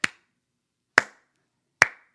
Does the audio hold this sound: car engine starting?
no